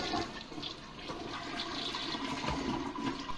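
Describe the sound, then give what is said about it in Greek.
A toilet flushes with a steady, rushing gush of water that stays loud for the whole few seconds, with no voices over it. “Να έχω στήσει εγώ καρτέρι πάνω από μια λεκάνη τουαλέτας.”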